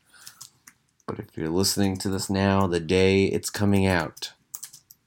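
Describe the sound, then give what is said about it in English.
Light, scattered clicking of dogs' paws as the dogs walk around on a hard floor, faint, ticking in the background before and beneath someone talking. “And you can hear my dogs walking around in the background.”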